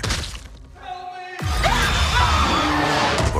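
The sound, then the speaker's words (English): A dramatic stinger from the trailer for the horror movie Barbarian: a brief eerie held tone, then a sudden loud booming hit that gives way to dense, chaotic noise with faint shrieking swoops, all loud. “I'm gonna play a little short trailer, and then I'll come right back and tell you what I thought of it.”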